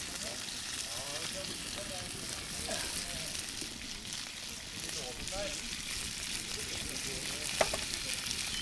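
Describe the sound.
Pork ribbe (pork rib) sizzles steadily in a frying pan, a continuous bright hiss dotted with small crackles and pops, while faint murmuring voices sit low beneath it.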